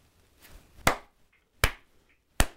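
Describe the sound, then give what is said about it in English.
Three sharp, stiff hand claps, a rigid slow clap of respect begun by an East German at a sled race finish line, land at a slow, even pace, each a crisp slap with a fainter one before them. No voices and only quiet background between the claps. “it's like the most rigid clap I've ever seen.”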